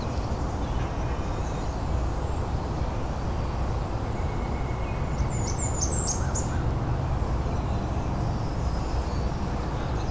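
Nasal caws of a fish crow come through a steady outdoor rush of wind-like noise, with a few faint, high bird chirps briefly in the middle.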